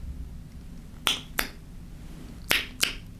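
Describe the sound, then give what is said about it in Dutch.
Four sharp, crisp tongue clicks arrive in two quick pairs with a short pause between them, fairly loud against a quiet hum. They are made for echolocation practice, with a tray held to the left or right of a listener's head. No one speaks. “Dus ik ga nu het dienblad naast haar hoofd houden en dan mag je links en rechts klikken en zeggen waar het is.”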